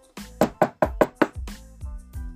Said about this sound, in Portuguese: E lá estava ele, sossegado, quando de repente escutou um, um barulho, uma batida na porta.